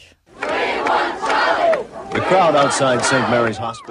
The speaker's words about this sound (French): La foule extérieure de l'hôpital Sainte-Marie scande le nom de Charles juste après l'annonce de l'accouchement